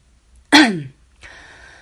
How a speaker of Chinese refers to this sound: 可我知道此时不是心软的时候，于是清了清嗓子问